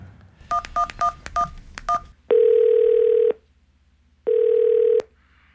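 Six quick keypad tones beep out a phone number, followed by two long, steady ringback tones separated by a pause, clear with no one speaking.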